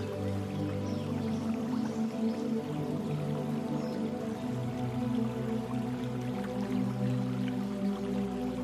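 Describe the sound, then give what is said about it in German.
A small brook flows steadily and continuously beneath a small wooden bridge at the end of a bamboo grove in a Japanese-style garden, with colourful koi swimming in it; a soft burbling and trickling that stays even throughout, with no voices. “Am Ende des Bambushain führt eine kleine hölzerne Brücke über einen kleinen Bach.”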